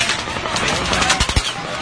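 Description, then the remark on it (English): Rapid gunfire from at least two different shooters firing at the same time crackles in dense, overlapping bursts, with a few sharper, louder cracks standing out near the end over a steady wash of noise. “It's not a helicopter. It's two different shooters.”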